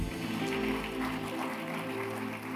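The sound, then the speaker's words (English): A church audience gives the Lord a clap offering, clapping steadily in a dense, continuous wash of many hands for a few seconds, with low sustained tones humming beneath the crowd. “Somebody give the Lord a good clap offering.”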